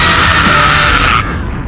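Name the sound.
explosion sound effect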